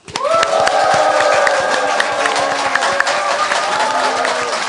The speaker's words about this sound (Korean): 네, 국민TV 시사 토크쇼 맘마이스 여러분의 힘찬 함성과 박수로 시작하겠습니다.